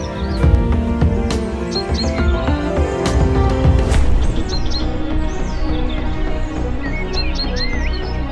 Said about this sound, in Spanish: Comenzamos el paseo fluvial por medio de todo el cañón, donde ya se empezaban a escuchar los cantos de las aves endémicas de la zona.